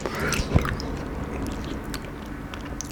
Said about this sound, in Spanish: Y yo tipo, no me importa, no me importa, no me pagan por esto, voy a comer. Ah, no, sé por qué es el sonido masticado, porque de verdad estoy masticando, ¿eh?